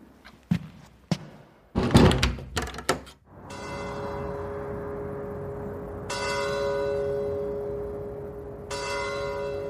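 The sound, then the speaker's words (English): A few clunks and a door-like slam, then the large bell of the Catedral del Mar in Barcelona tolls slowly at night, striking ten, its deep strikes spaced a few seconds apart, each one ringing on and overlapping the next in a resonant hum. “Every night, when the bell of the Catedral del Mar strikes ten, I go out to the terrace of my apartment in the Raval borough in Barcelona”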